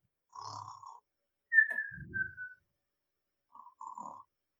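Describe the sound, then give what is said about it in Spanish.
A voice imitates a producer snoring after falling asleep during a recording session: a nasal snort, then a whistling exhale with a low rumbling breath, a pause, and another short snore. No words are spoken. “no me enojo que te duermas, nomás no ronques, porque me arruinas grabación, te digo, Si no ronques porque me despiertas.”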